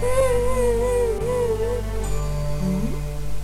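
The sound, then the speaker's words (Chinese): A story character, a little iron block, cries: a wavering, whimpering cry with a sobbing pitch that wobbles up and down, then a brief rising wail near the end, all over a steady, loud low hum. “这是谁的哭声？”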